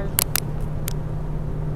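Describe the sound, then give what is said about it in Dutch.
Steady low rumble of a car in motion, engine and road noise droning evenly, with a few short sharp clicks early on and no one talking. “Um, sorry, heel even op het verkeer laten.”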